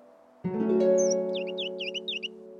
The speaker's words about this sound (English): The woman loved birds and the trills, tweets, and twitters they sang out in the surrounding trees. But this morning, at such an especially early hour, her ears detected a call she didn't recognize.